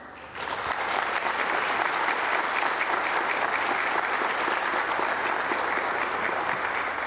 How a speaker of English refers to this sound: But speaking of that, do want to just say a word of thanks to the Pastor Search Committee and for others who have worked so hard to make this a special weekend. Let's give them a hand.